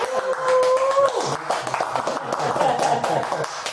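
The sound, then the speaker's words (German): Steady applause from a small audience at the Heimathirsch in Köln-Nippes during the comedy show Homekneiping, welcoming a guest, with dense crackling claps at an even loudness for a few seconds and a brief whistle-like tone near the start. “Äh, da klatschen wir jetzt einfach mal.”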